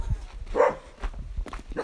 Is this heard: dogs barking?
yes